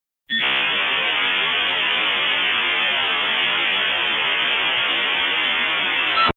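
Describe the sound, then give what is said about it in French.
A dial-up modem handshake, with two modems sending a series of signals back and forth to assess the quality of the telephone line: a loud, harsh, steady burst of hissing static that runs unbroken for about six seconds and then cuts off. No one speaks. “Ensuite, les deux modems s'envoient une série de signaux dans les deux sens pour évaluer la qualité de la ligne téléphonique.”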